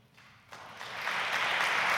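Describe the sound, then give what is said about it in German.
Applause starts softly and swells over two seconds into steady, dense clapping from a crowd, with no voices heard. “Applaus”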